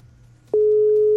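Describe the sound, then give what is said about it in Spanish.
A WhatsApp call tone sounds while dialing: after a quiet, faintly humming start, a steady, loud single-pitched tone switches on abruptly and holds to the end, with no voices. “Le estoy marcando al WhatsApp.”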